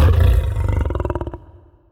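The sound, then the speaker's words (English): A deep, powerful lion roar, opening with a loud rumbling bellow and trailing off into a rapid series of pulsing grunts that fade out. “Low frequency sounds trigger fear responses, like rumbling thunder or a lion roar.”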